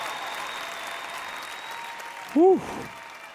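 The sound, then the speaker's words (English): An applause sound effect played as fanfare for Abbott: steady, dense clapping that holds at an even level throughout, with a brief rising-and-falling whoop-like tone cutting in just before the end. “do we have any applause? Do we have any fanfare we could play for Abbott?”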